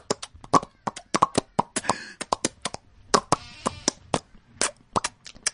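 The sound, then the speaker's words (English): A rapid, uneven series of sharp lip pops made by a voice imitating a fish out of water, dozens of short wet clicks with a few brief smacking bursts, no speech. “now this fish out of water.”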